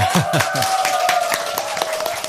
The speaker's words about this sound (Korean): 오늘 여러분들 좋으셨어요? 네, 네 좋으셨으면 박수. 우리 딸들보다 어머니들이 좋았어야 되는데 어머니들 좋으셨으면 어머니들만 박수? 네.